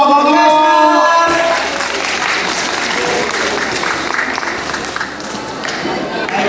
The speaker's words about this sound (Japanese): ありがとうございます大きな拍手を